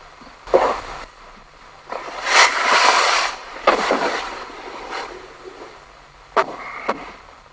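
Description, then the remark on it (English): A sharp bang next to a bed, followed by bursts of soft fabric rustling as a duvet is shifted, more thuds of banging next to the bed amid the rustling, then two brief distinct pulses near the end. No one speaks. “So what you're about to hear is a a bang next to my bed. You will hear me rustling my duvet in some kind of reaction to it.”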